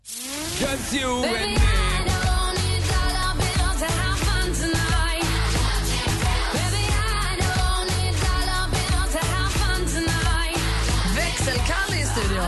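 An upbeat pop song from the UK chart plays at full, steady loudness, with a driving beat, thick bass and layered melodic parts, continuing without any talking over it.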